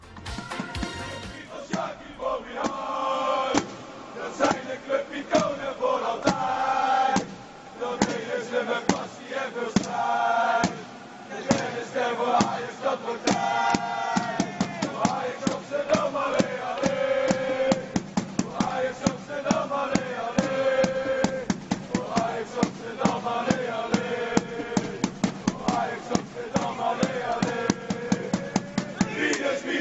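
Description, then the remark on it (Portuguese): A large crowd of Ajax football supporters chants a tribute song together, honouring Rinus Michels, voices blending into a loud, sustained, melodic roar that rises and dips in steady rhythmic phrases throughout. “Um tal de Rinos Mitchell fez um barulho danado com o clube, com seleção e a torcida do Ajax até hoje presta homenagem.”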